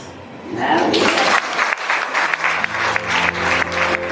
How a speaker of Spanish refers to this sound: Nos sumamos a ese aplauso que rompe además tantos silencios y tantas paredes.